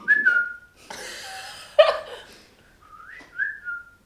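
Someone makes a clumsy whistling attempt: a brief wobbly tone, then breathy, airy blowing that fails to catch, ending with a short, wavering whistle that slides upward.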